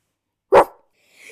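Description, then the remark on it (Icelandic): A single sharp, loud bark performed by a human voice mimicking a dog, followed by a short faint tail of sound before silence. “Svo stoppaði hundurinn þá og sagði.”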